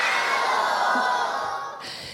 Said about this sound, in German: Wir sind in Nürnberg beim Podcast Festival und wir haben hier Publikum, Gäste, Zuschauerinnen, Zuhörer, Zuhörerinnen und die klingen ungefähr so.